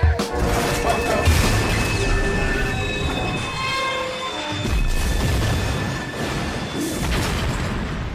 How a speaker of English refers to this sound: The sound of an actual train wreck finishing off the song … by ….